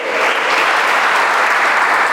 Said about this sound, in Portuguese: Você podia dar um aplauso a ele, é para isso nós precisamos do dezembro.